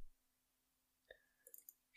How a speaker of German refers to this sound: Ich sag mal, hör doch mal die ganze Zeit auf, auf der Maus zu klicken, Junge. Ich klick nicht auf der Maus.